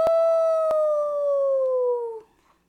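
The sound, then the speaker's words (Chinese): A police car siren wails in one long, loud, steady tone that slowly sinks in pitch over about two seconds, broken by a couple of sharp clicks, then cuts off into near silence, as many police cars join the chase of a robbers' car on the southbound lanes of a highway. “许多警车都聚集过来，一起加入追捕抢匪的车子。呦呦呦呦，呜！呦呦呦呦，呜！”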